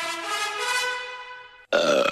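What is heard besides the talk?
burp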